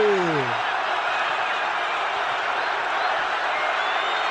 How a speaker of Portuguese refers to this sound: A maior torcida do Brasil solta o grito e comemora a conquista no Maracanã lotado.